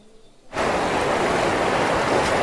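After a brief moment of near silence, a loud, steady roar of the Rio Bravo rushing over a dam between Ciudad Acuña, Mexico, and Del Rio, Texas, cuts in and continues unbroken and full, with no voices.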